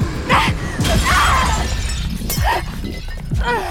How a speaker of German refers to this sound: über ihre Schulter zurück sah das zerbrochene Fenster drei Etagen über sich.